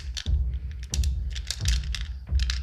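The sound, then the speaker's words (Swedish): Dice clatter and rattle inside a dice jar as someone rummages through them to pick a different die, in several busy bursts of small hard clicks over a low handling rumble, with no talking. “Ska jag kolla här i tärningsburken?”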